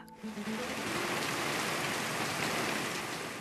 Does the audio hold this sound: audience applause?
no